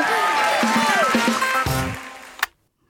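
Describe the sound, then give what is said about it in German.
A crowd cheers and shouts loudly, many voices overlapping in a dense roar with rising and falling cries, ending in a sharp crack before stopping abruptly into silence. “Mann, das waren Jubelschreie.”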